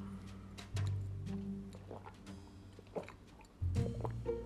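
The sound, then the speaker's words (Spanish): Water is turned on and poured for drinking in short, uneven splashes and drips, with a few sharp clicks and a steady low hum underneath; no one speaks. “Voy a abrir un poco el agua porque tengo un poco la garganta seca. Van a escuchar el, agua caer”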